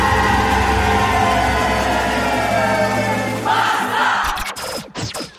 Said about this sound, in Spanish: Esto que ustedes escuchaban era no otra cosa que la marciña